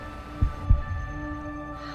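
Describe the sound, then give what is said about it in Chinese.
A fast heartbeat sound effect for a racing heart on first touching a fencing sword: a pair of deep, muffled low thumps in quick succession, lub-dub style, over a steady droning hum with faint tonal lines. No one speaks. “当我第一次碰到剑的时候，心跳那叫着快呀，好像之前从来没有过的那种快，感觉自己拥有全世界，帅呆了。”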